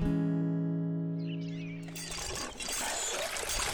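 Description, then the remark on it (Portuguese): A steady, squeaky tonal whine gives way to a rush of water from a hand pump pouring and splashing into a bucket that is nearly full, fairly loud, continuing to the end. “puxa, você pode tirar água da bomba melhor do que eu. O balde já está quase cheio.”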